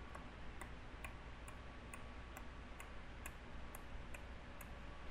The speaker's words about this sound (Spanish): Las gotas de agua que caían del, del fregadero del bar.